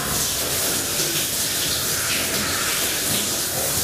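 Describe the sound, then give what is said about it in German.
A shower running steadily, a constant bright hiss of spraying water that stays even and unbroken throughout, with no voices. “Also ich würde überall duschen.”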